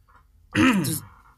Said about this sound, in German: Soll ich mich auch räuspern?